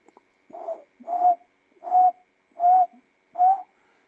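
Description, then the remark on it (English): A barbet, one of the quieter barbets, found mainly in Zimbabwe and northern Mozambique, gives a low, hollow cooing call: five short, soft-edged notes repeated at an even, unhurried pace, each about the same pitch and loudness, with no voices or other sounds. “like a coo coo coo sound”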